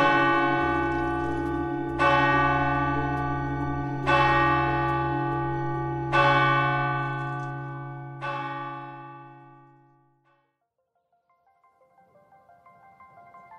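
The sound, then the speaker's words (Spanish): A large church bell tolls five times at a slow, steady pace about two seconds apart, each loud strike ringing out with a rich, lingering hum before the sound fades away. “El día 15 de septiembre, la belleza de su tañer.”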